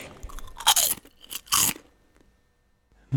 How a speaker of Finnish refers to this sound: Kyseessähän oli siis täysin sileä aallonmuotoinen sipsi